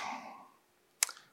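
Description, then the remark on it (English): A single short, sharp sneeze bursts out in a quiet moment, brief, after a fading murmur of background sound. “Bless you.”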